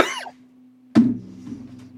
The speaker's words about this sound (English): Yeah, no, I'm, s- I've still got that cough.